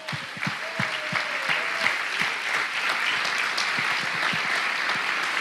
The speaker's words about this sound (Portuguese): Aleluia! Aplauda ao Senhor!